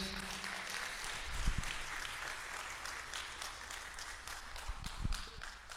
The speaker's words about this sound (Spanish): Dar un aplauso al Señor por sus pastores.